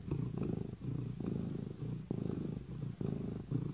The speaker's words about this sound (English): Suddenly, she hears purring near the fireplace.